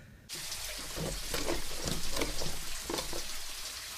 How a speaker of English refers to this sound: I'll start the shower.